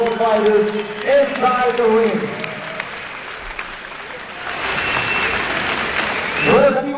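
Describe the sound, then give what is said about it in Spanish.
A boxing arena crowd applauds both fighters after a bout, a steady, dense wash of clapping, with an amplified announcer's voice ringing out over it at the start and again briefly near the end. “un fuerte, fuerte aplauso para ambos peleadores.”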